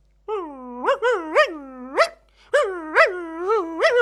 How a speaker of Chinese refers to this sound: 这时候，小狗出来，对着司机狂叫。